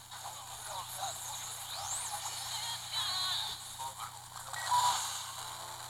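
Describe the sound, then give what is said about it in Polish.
Steady hiss of FM radio static from a Braille Sense OnHand's radio with no antenna, tuned to 89.0 MHz, filling the whole six seconds, with faint warbling, sweeping tones and garbled fragments bleeding through the noise, moderately loud and unbroken. “Jak sami Państwo słyszycie, w zasadzie nie słychać zupełnie nic, jakieś tam przebijające się przez biały szum dźwięki zdecydowanie niekomfortowe e, do słuchania”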